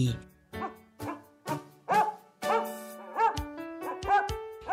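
A dog barks in a quick, steady series of about nine or ten loud woofs, each short and yappy, with no talking alongside.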